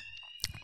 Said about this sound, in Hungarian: Egy kollégista lány odaégette a ah. valamit, és kicsit füstölt, és attól elindult a füstjelző